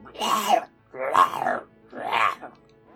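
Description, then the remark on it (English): A voice imitates a strange, distorted dog bark three times in a slow, even rhythm, each bark a rough, throaty, groaning burst, fairly loud with brief pauses between, portraying a disformed, morphed dog standing behind Lord Squilliam. “And right behind him, you hear a very disformed, weird sounding bark.”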